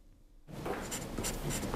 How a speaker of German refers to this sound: Konzentrierte Stille und das Geräusch der Stifte auf dem Papier. Die Teilnehmenden des Aktzeichenkurses der Freien Kunstakademie Frankfurt sitzen im Kreis.